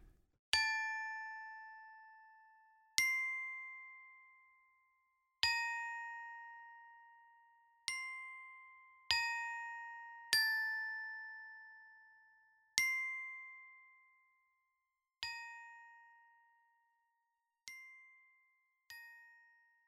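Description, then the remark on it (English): A glockenspiel part for a song's second verse: about ten bright, ringing glockenspiel notes are struck one at a time at an unhurried, slightly uneven pace. Each chimes clearly and fades away, with no voices or other instruments. “During the second verse, I added a glockenspiel sound to give it kind of a playful feeling.”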